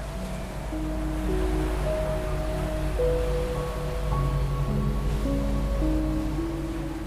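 A steady, rushing wash of Atlantic Ocean surf on a beach, even in level, with soft sustained musical tones drifting over it. No one speaks.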